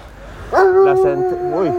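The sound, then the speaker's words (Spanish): A small Polish dog lets out a drawn-out, wavering howl, its pitch rising and dipping through a few yelping breaks, over a low background hum. “este perrito polaco.”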